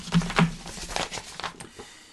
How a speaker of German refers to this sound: Sound, Papiergeraschel, Erzähler.